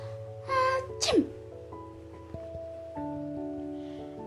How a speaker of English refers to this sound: But at the very moment, the elephant sneezes.